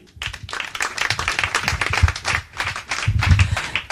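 An audience applauds steadily, a dense wash of many hands clapping at once with no pauses, loud and continuous throughout.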